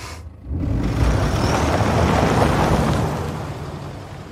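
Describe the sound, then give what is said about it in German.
A limousine carrying Rose and the agent drives off at the end of the film, its engine swelling into a steady rumble of engine and road noise, then easing slightly as the car slows to a stop. No voices. “Jetzt fährt ja dann diese Limousine mit, mit Rose und dem, dem Agenten dann am Ende weg und am Ende kommt der Wagen zum Stehen”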